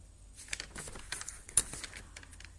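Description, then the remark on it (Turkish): Quiet paper rustling and crinkling as a book is handled, with a series of soft, irregular crackles and one sharper snap partway through; no voices. “Şimdi yavaş yavaş kitabı elimize alabiliriz bence.”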